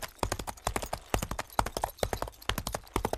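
Rapid hoofbeats of a horse galloping, a steady rolling rhythm of sharp thuds repeating fairly loud throughout, with no talking over them.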